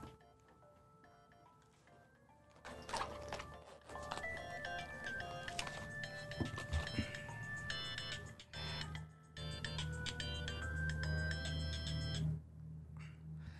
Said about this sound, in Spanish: Una disculpa, perdón, pero estaba fuera de control este celular que ya lo apagamos.